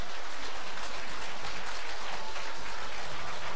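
Steady, dense applause from a crowd welcoming a station director, a continuous wash of many hands clapping at once, fairly loud and even throughout with no voices on top.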